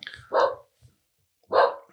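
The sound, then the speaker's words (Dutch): A dog barks twice, sharp, with about a second of quiet between the two loud barks and no talking. “Als hij mag blaffen, dan mag ik ook blaffen.”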